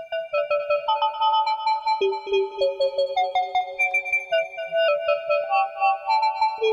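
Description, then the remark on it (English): A bright synth melody, played manually, in which a percussive sound is turned into a fake analog reverse: sustained, swelling tones with a reversed-attack feel, washed in long reverb so notes smear and overlap into a shimmering wash, played alone with no voices. “And if we soak it into the reverb, it sounds like this.”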